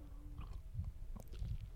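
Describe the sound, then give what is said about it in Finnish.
Quiet mouth sounds of someone sipping water during a conversation, a few soft wet gulps and swallows over a couple of seconds, with no talking. “mä hörpään vettä.”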